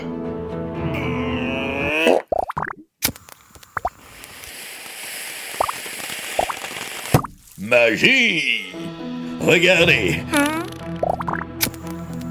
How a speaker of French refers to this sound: J'arrive à allumer mes pets contenus dans mes bulles. Oh la belle bleue